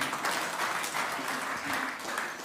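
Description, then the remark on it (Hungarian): A crowd claps steadily for a couple of seconds for a young speaker who talked about giving. It is a dense, continuous wash of applause at moderate loudness with no voices standing out. “Úgyhogy tapsoljuk meg, jó?”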